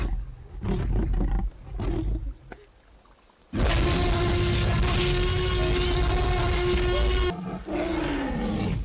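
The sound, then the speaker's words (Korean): A loud, drawn-out velociraptor dinosaur roar from a film, made by mixing several animal sounds including pig sounds, bursts in after a few softer snarls and breaths, screeching and rasping for several seconds before a final growl, with no talking. “저 공룡 소리 어떻게 만든 건지 알아?”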